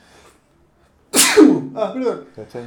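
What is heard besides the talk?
sneeze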